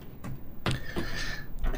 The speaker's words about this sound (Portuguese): Baralhar um pouquinho.